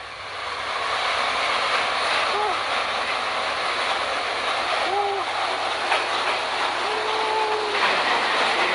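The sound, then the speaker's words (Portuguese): A train rushes past about one and a half metres away, beside a trackside café, a loud, steady roar of wheels and carriages filling the whole stretch, with brief metallic squeals rising over the rumble. “Um trem passando um metro e meio de você, qualquer pessoa, qualquer estúpido tentando tirar uma selfie é, arriscada”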